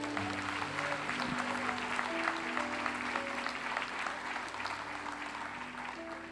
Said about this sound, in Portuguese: Aplaude a Deus por isso.